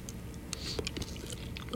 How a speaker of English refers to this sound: by the way, I'm still trying to get over no tobacco, folks. So I'm chewing some Eclipse gum. I like that stuff. It's good. And it really gets the oral fixation, you know, sets it right for me.